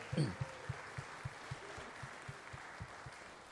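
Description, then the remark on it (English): An audience at a church service applauds for the kids attending, in a sustained wash of clapping, with a steady rhythmic low thump running underneath, and a brief voice at the start. “Come on, let's hear it up for all the kids in service with us today.”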